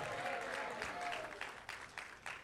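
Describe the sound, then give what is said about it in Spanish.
A crowd gives a strong round of applause to the Lord, many hands overlapping into a dense, sustained, steady wash that gradually thins into scattered, separate claps toward the end. “Vamos a darle un aplauso fuerte al Señor. Dale un aplauso fuerte al Señor.”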